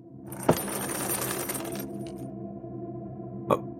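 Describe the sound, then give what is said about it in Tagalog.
A metal chain scrapes and rattles across a floor in front of a room for over a second, with a sharp clank at the start and another lone metallic clank a few seconds later. “may hila-hilang kadenang kumakaskas sa sahig”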